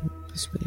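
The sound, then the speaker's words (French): A voice briefly imitates exploding bombs, a soft breathy hiss followed by low, rumbling mouth bursts that grow louder at the end, short. “c'est comme des bombes qui explosent.”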